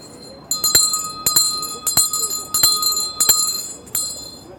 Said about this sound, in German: Es läutet 12 Uhr die Sonne steht hoch am Himmel. Für uns ist es das Gedenken an den Engel des Herrn, den wir hiermit begrüßen.